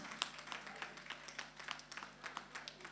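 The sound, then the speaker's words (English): A group claps steadily together for people who have stood up to join a department, a dense patter of overlapping hand claps at a lively, fairly even rhythm, moderately loud throughout with no voices heard over it. “Oh, let's clap for them.”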